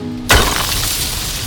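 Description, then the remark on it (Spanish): A sudden loud crack bursts out across a city after a brief quiet moment, followed by a sustained, noisy rumble of crumbling and breaking debris that fades only slightly as a prince's statue falls apart. No one speaks. “De repente, se escuchó un crujido muy fuerte en toda la ciudad.”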